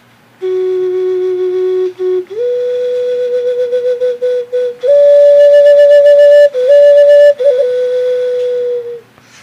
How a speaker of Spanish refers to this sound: Después nos encontramos con las flautas funerarias. Esta es una ocarina de willow o paloma, que es parte de los sonidos funerarios.